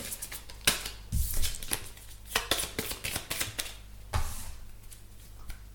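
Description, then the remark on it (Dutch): A deck of transformation cards printed with affirmations is tapped and then shuffled: an irregular run of crisp, papery flicks and slaps, with a couple of duller thumps among them, fairly quiet and with no one talking. “En dan klop ik even de negatieve energie eruit. Dan schud ik ze even.”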